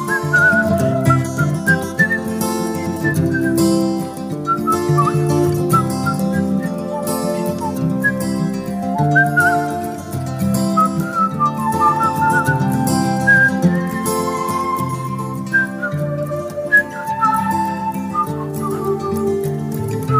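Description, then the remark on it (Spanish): A whistled melody rises in clear, wavering high notes over a full instrumental backing of sustained chords, carrying a song's closing passage with no voices singing or talking. “estamos compartiendo los últimos acordes, también los últimos silbidos de este hermoso tema”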